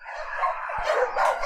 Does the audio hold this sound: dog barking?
yes